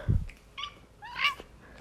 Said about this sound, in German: Star Power ist einmal miauen, Gadget ist zweimal miauen.